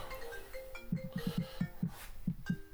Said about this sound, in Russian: Так. Вот опять был звонок, я в эфире, вот как раз владыка Александр Кузнецов мне звонит.